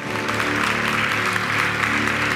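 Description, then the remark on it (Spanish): An audience breaks into steady, loud applause for God, a dense wash of clapping hands that holds evenly throughout, with a faint sustained musical tone underneath. “Dígame amén y déle un aplauso a Dios el que lo crea.”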